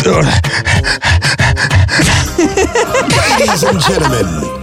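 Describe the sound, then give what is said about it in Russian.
A person does quick, rhythmic dog-like panting with the mouth open, a rapid run of short breathy huffs, as a 20-second mouth warm-up exercise called "the dog", then shifts into voiced talking with some laughter. “И начинаешь быстро дышать. Но это не э, быстро, быстрее. Это что, собачка, что ли?”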